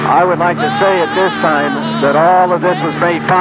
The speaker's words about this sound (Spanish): Este es el sonido de cabina de un vuelo llevando adeptos a Guyana.